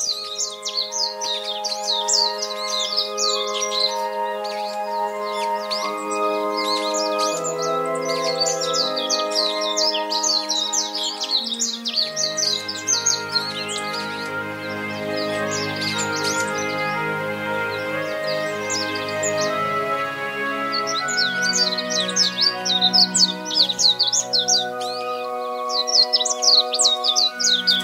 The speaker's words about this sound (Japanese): 朝の小鳥今朝は瀬波海岸の目白をお送りしました